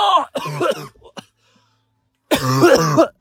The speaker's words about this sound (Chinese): 二零二二的新冠还没解决，我现在还在咳嗽。